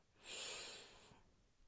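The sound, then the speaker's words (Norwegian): A single deep, airy breath drawn in through the nose as part of a guided breathing exercise, lasting about a second before fading into quiet. No talking. “Ok, da starter vi med å puste godt inn, og helst godt inn gjennom nesa.”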